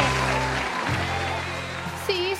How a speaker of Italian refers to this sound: Un grandissimo applauso per il vincitore!